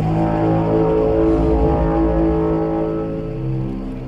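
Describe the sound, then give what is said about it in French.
A deep, booming sci-fi spaceship arrival sound: a loud, sustained foghorn-like bass drone with layered low tones, holding steady for about four seconds, with no one talking. “je me souviens de La Guerre des Mondes, par exemple, de Spielberg, où quand les vaisseaux arrivent, ça fait une espèce de.”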